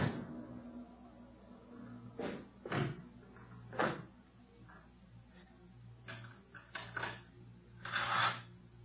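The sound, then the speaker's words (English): A handle on a locked door is jiggled and rattled repeatedly against the lock, producing a series of short clanking, creaking bursts at irregular intervals, moderately loud, with faint background hum. “Oh, locked. This door's locked.”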